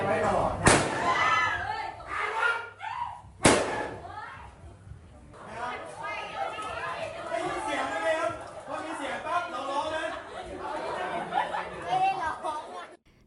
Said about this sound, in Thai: นี่เป็นเสียงจากการจำลองเหตุการณ์ที่ผู้ร้ายยิงประชาชนนะคะ ซึ่งทางตำรวจเนี่ยก็ได้เอามาให้ครูและก็นักเรียนเนี่ยได้ลองสาธิตกันดูว่าถ้าเกิดเหตุการณ์แบบนี้เกิดขึ้น จะเอาตัวรอดอย่างไร